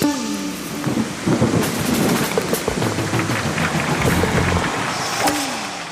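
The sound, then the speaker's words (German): Heavy rain falls steadily outdoors, a dense, loud hiss with scattered sharper patters and a low rumbling undertone throughout, with no voices. “wir gehen jetzt wieder in den Regen.”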